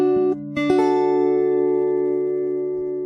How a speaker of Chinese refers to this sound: 天哪，太久没弹吉他了。